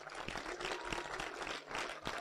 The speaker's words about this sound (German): Und sie hat diesen Kontakt ermöglicht und lasst uns den beiden einfach mal einen ganz herzlichen Applaus geben.